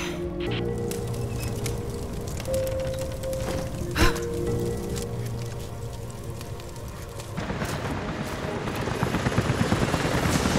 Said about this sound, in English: helicopters are headed your way.